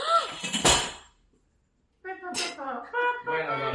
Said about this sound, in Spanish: Porque el gato tumbó el teléfono.